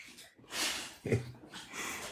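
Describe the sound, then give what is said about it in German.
A thirsty dog drinks water in the background, lapping with soft wet slurps and sniffing breaths in uneven bursts, fairly quiet, and no voices. “Das, was ihr gerade übrigens im Hintergrund hört, das Schlabbeln, das ist mein Hund,”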